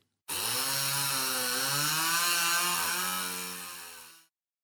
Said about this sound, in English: Confused, the salesman takes the chainsaw and starts it up to see what's wrong. At which point the idiot asks, Hey, what's that noise?